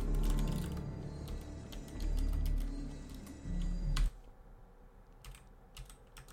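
Rapid clattering of computer keyboard keys, a dense burst of clicks for about four seconds, then a pause and a few scattered, sharper taps. No one speaks.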